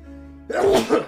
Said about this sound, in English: Bless you cut that out.